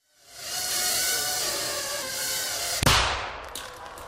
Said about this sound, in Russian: Голова манекена пробита насквозь, как от выстрела снайперской винтовки.